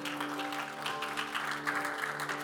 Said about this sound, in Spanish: Den un aplauso fuerte a Cristo porque Él es bueno.